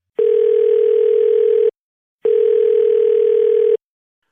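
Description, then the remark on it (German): A telephone tone sounds twice as the receiver is picked up to make a call, each a steady, buzzy electronic note lasting about a second and a half, separated by a short silence. It is loud, with no voices. “Also Anlass genug, den Hörer in die Hand zu nehmen.”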